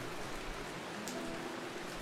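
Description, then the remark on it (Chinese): Heavy rain pours down in a steady, dense hiss that fills the whole clip at an even loudness, with no voices. “雨越下越大，只有很小一块地方没有被雨点打湿。”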